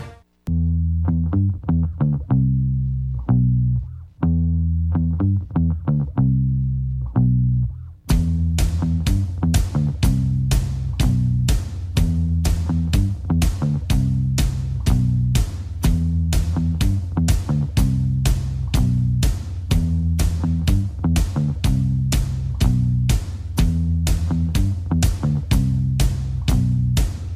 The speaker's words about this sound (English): as the boys get hype in the studio, but unfortunately the music will start to fade on them